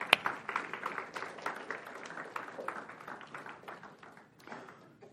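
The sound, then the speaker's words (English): A crowd applauds the ladies who helped as volunteers, with a steady patter of many hands clapping at once, moderately loud and sustained for several seconds before thinning out slightly toward the end. “Give these ladies a round of applause here.”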